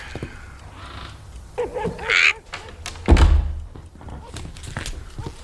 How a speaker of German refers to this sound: Und nun schließen Sie die Tür. Es muss ja nicht jeder mitkriegen, was wir hier zu besprechen haben.